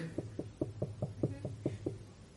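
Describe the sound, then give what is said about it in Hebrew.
A quick series of about nine sharp knocks on a door, evenly spaced in a steady rhythm, fairly loud with a low, hollow thud, and no one talking. “יש בן אדם דופק.”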